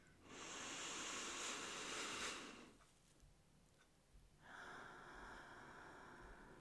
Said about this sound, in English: Okay, so what we're gonna do is we're gonna take one deep breath in together.